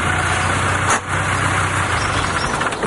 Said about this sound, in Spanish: Al oír un vehículo que se acerca, cierra la puerta de la casa.